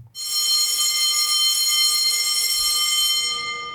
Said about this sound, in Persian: اوه اوه بچه ها زنگ خورد و دیگه فرصت برای حیات رفتن هم نداریم کلاستون الان شروع میشه